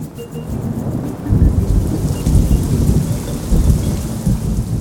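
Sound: rain with thunder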